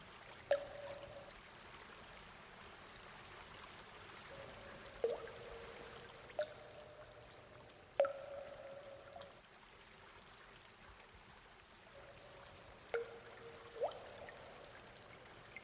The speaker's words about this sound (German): Leichte Tropfen.